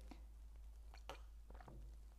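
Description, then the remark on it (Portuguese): Someone takes a few quiet sips of water with lemon, ginger and stevia, with soft wet slurping and swallowing sounds over a steady low hum, and no talking. “agora vou beber minha água com limão e gengibre e stevia.”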